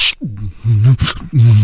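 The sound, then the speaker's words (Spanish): A voice beatboxes a short rhythmic phrase, sharp hissing snare-like bursts alternating with loud, low, buzzing hummed bass tones that bend in pitch, imitating drums and bass. “Porque ese es un beatbox, dice. Ganó un concurso de beatbox.”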